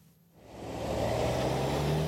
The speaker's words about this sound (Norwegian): En buss kjører ved siden av meg. Det er nesten bare å strekke ut armen og ta på den.